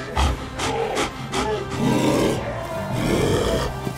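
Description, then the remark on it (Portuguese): A deep, rumbling growl of a giant wolf, heard as a body transforms into the wolf, swells into a loud, drawn-out roar, continuous for several seconds with rough, snarling surges and no talking. “Seu corpo baixo e parrudo se estica, tomando a forma de um lobo gigante.”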